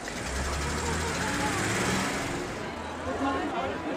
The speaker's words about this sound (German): Und dann kreisen hier noch die ganze Zeit Hallen-Shuttles, kleine Busse, auf denen übrigens Paulo Coelho zu sehen ist, der brasilianische Autor, der die Messe boykottiert hat. Hier ist er doch dabei, und zwar lautstark.